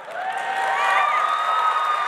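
crowd, audience applause and cheering

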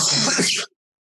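human body sound, cough

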